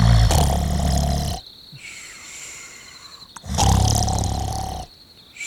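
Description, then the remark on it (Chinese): Exaggerated, thunderous snoring of a monkey king sleeping in a forest in a story: two long, loud rumbling snores with a quieter breathing gap between them, deep and growly like a roaring animal. “他尝试着想要睡觉，可是旁边的猴王打呼的声音根本就像打雷啊！打呼超大声的，吵得他都睡不着。”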